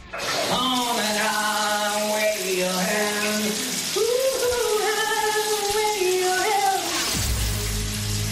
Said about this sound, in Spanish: Bueno, antes de nada, supongo que tienes tu teoría de quién canta bajo la ducha, pero yo por si acaso te voy a refrescar la memoria y te lo voy a poner una vez más. ¿Quién canta bajo la ducha? Escucha.